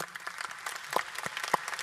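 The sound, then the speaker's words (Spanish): An audience applauding in honour of the speaker's mother: a steady patter of many hands clapping at once, with a few sharper, louder claps standing out from the dense, even wash of sound. “siempre un aplauso para mamá es bienvenido.”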